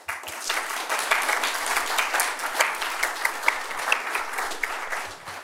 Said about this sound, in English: So, um, that, a round of applause for yourselves.